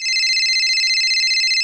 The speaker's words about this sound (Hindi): वो तैयारों में बिजी थी कि तभी उसकी फोन बज उठी